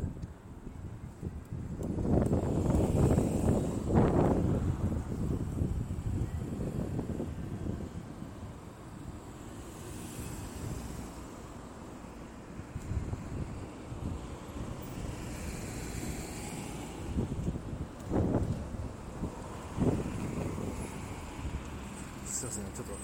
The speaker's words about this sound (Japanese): 片側3車線ぐらいの大きい道路を今歩いてるんでちょっとすいませんうるさいですね